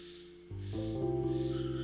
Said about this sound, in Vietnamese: đó là tiếng cốc nhái kêu như vậy đấy xung quanh là âm thanh đấy